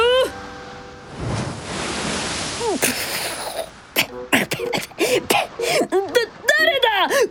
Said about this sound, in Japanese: やっほー今日はサーフィン日和だね華麗に波乗り光り輝く波しぶき